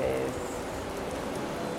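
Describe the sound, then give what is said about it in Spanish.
A steady, even hiss of falling rain fills the whole moment without pause, with a faint voice briefly audible at the start. “o sea, en la, en la toma no se ve que lloviendo ¿No se nota en la toma?”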